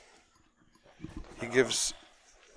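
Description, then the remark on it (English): A dog named Stanley snuffles and lets out a short, high whimper, followed by a breathy burst of sniffing, while a person talks briefly. “What you're hearing is our co-host Stanley.”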